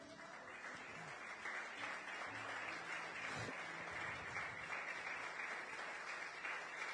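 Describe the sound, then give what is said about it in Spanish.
An audience clapping together for Christ in steady, sustained applause, a dense wash of many hands that holds at an even loudness for several seconds with no speech over it. “Dale un aplauso a Cristo, amén.”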